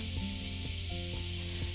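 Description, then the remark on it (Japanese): Bear cicadas buzzing on a hot day in a steady, dense, hissing drone that never breaks, fairly soft overall, with a low humming tone running underneath and no voices. “セミの音がさらにわしゃわしゃ言ってきましたクマゼミですねこれは”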